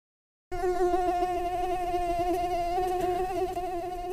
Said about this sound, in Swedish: Visst vågar man säga att det finns trevligare ljud än det där? Sommarens gissel, myggen.